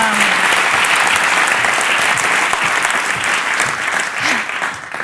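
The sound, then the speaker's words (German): Sustained applause from an audience at a stand-up comedy show, welcoming a comedian to the stage: a dense, steady wash of clapping that stays loud throughout and eases slightly at the very end, with no voices standing out. “Ein großartigen Applaus für meine Kollegin,”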